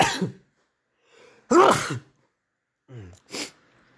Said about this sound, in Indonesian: bentar aku mau bersin